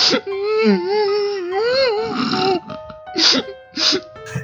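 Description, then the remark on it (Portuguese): A loud crying wail with a wavering, drawn-out pitch for a couple of seconds, followed by several short, choked sobbing bursts. “E ele começa a chorar.”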